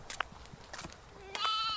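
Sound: young goat bleating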